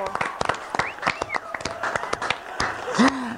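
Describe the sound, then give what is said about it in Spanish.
An audience on the TV show Me lo dijo Adela applauds with a dense, irregular patter of sharp claps lasting a few seconds, mixed with scattered cheering and shouting voices above the clapping. “Bueno, pues aplaudan fuerte, fuerte, fuerte. ¡Bravo!”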